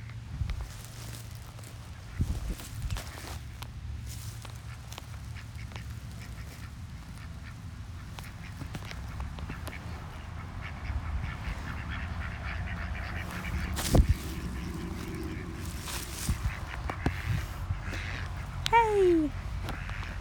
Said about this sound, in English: playing peekaboo with a duck right now. I know, crazy.